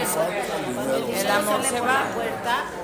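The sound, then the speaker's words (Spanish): Many voices shout over one another at once, a dense, overlapping jumble of calls from an audience calling out different versions of a Spanish saying about money and love, fairly loud, with no single speaker standing out. “Me encantó porque escuché en 10 segundos 30 versiones diferentes 30.”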